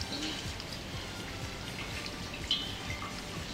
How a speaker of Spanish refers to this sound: Uy, la lluvia. ¿Está lloviendo? Está lloviendo. Llueve a cántaros.